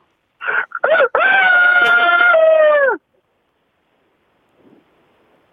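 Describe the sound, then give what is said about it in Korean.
A caller's voice over a phone line imitates a rooster crowing: a couple of short clucking bursts, then one long, loud, strained crow that trails off, followed by silence with a faint murmur. “전생에 닭이었다고요?”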